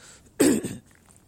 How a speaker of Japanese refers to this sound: あと、咳払いします。